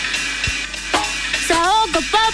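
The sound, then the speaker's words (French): A beer cracks open with a couple of sharp clicks and a steady hiss of fizzing, clear, before sliding musical tones start up over the bubbling. “On s'installe, on ouvre une bière”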